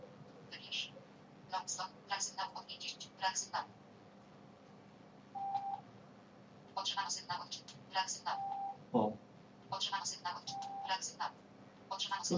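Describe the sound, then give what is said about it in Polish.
Bursts of short electronic tones from a phone's GPS during a cold start, the phone held outside a window, signalling satellite signal being acquired and repeatedly lost; they recur in quick clusters with occasional steady single beeps, all fairly faint over a low background hum. “słyszymy, to są informacje o tym, że otrzymano sygnał u satelitów i ten sygnał ciągle gubi.”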